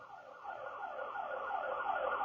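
A car alarm wails in rapid, repeating up-and-down sweeps, a steady electronic cycle that grows slightly louder over the couple of seconds, with no voices present.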